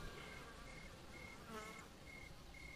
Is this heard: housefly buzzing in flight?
yes